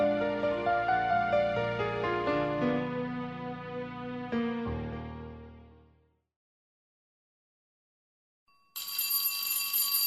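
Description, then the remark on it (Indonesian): A loud electronic school break bell plays a ringing melodic signal for recess that fades out after about six seconds; following a short silence, a harsher, buzzy ring starts abruptly near the end. “Bel istirahat berbunyi.”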